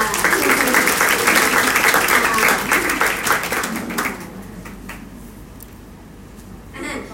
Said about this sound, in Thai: แล้วสายงานที่ว่าเนี่ย ก็คือนี่เลยค่ะ ที่นั่งดูอยู่อยู่ด้านหน้านี้นี่เองขอเสียงปรบมือให้ด้วยค่ะ